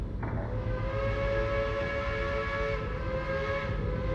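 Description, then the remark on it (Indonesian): A train arrives, its whistle blowing in one long, steady harmonic tone for nearly four seconds over a continuous low rumble of rolling wheels, loud, with no voices. “Sebuah kereta datang menjemputku.”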